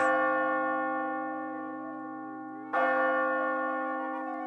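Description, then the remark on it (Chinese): A clock bell striking nine chimes; two resonant strikes are heard a few seconds apart, each a bright metallic clang that rings on in a long, humming decay. No one speaks. “当当当，钟声敲了九下。”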